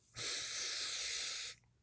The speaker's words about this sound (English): Take a deep breath here, breathing in,